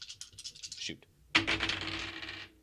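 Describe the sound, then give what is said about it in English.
Dice rattle in a quick series of shakes, then after a brief pause tumble out with a sharp clatter that skitters and rolls for about a second before settling. Fairly loud. The dice are re-rolled to pick a bet on the Seattle Redhawks versus New Mexico State Aggies game. “The dice say, okay.”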